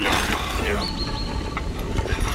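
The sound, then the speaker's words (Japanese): Gold ore being ground in a stone hand mill at a mining site in southern Nubia, ancient Egypt. Raw ore placed in the middle of a stone dish is crushed with a stone: a steady, rough stone-on-stone scraping runs throughout, with a thin high squeak sustained briefly in the middle. “ああ今度もまた石器だ石でできた引き薄だよ石皿の真ん中に原石を置いて同じく石ですりつぶす小麦を引くのと同じやり方だな”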